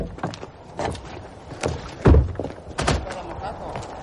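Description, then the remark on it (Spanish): A door is opened with a series of low thumps and clunks, the loudest heavy thud midway, followed by a softer knock and faint rustling as someone opens the door and steps out. “Tres abre la puerta y sale.”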